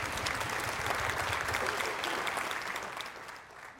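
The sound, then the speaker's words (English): An audience at a Sunday church service breaks into steady applause marking the pastor's 1,662nd Sunday, dense overlapping claps sustained for a few seconds before tapering off slightly at the end, with no voices standing out. “God, me and you'll clap for it”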